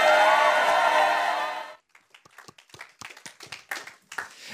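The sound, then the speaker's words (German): A dense burst of applause as the host comes onto the stage at ICF fills the first couple of seconds, then fades out and gives way to scattered individual claps, a few hands clapping unevenly. “Der Clip ist geil, da gibt es immer Applaus, wenn ich auf die Bühne kommt.”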